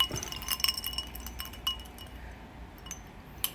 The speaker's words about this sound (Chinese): 好，我加了一些冰块，然后把它混一下